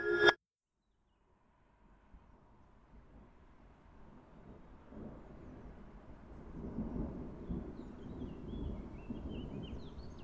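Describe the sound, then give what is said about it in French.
Thunder from a storm rumbles low, a long rolling growl that swells gradually and stays heavy through the end, preceded by a brief sharp sound at the start and a moment of silence. “Dans nos oreilles : les voitures qui passent dans la rue. Le tonnerre.”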